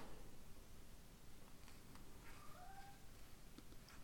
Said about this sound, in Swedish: Ja, min katt håller med i bakgrunden.